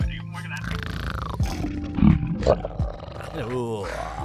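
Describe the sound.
A voice imitates a dragon's roar with a drawn-out, growling bellow over several seconds, rising in a couple of raspy bursts before trailing off, loud.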